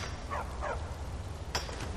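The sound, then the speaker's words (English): Two quick barks from Barbas, a dog in a video game, fairly faint, over a steady low rumble, followed by a sharp click-like thump a moment later. “I can hear Barbas.”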